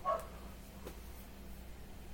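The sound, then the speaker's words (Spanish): A single short bark from a female dog sounds right at the start, then fades into a quiet, steady background hum with no further barking. “la perra, claro que sí, que la perra tiene que hacer acto de presenciado, claro que sí, vámonos.”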